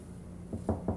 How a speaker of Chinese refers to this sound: 好的，我们值日生群都到达了，那来敲门，请外面的那一位同学进来。